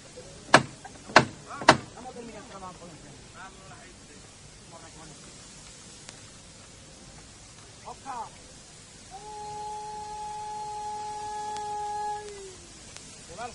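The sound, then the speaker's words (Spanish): A Holy Tuesday brotherhood procession float is raised by its costaleros in the final stretch of the procession: three sharp, loud knocks ring out, then the capataz calls out commands over crowd murmur, and a steady sustained tone rises near the end. “Y vamos a escuchar cómo hace la levantada.”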